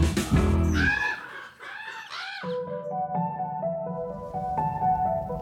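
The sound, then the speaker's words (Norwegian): Several crows caw loudly and harshly, their calls overlapping like a noisy flock for a couple of seconds, then give way to a steady, sustained musical tone. “De krier og kraer og kan lage et spetakkel uten like.”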